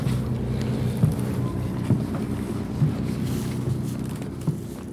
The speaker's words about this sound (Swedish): Ja, verkligen ett klassiskt ställe att bo på här precis i kanalen innanför Bäckholmen och Djurgården i Stockholm. Det ni hör är ju liksom sightseeingbåtarna och Djurgårdsfärjorna på väg till Gröna Lund